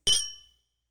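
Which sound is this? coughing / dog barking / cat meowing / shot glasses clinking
shot glasses clinking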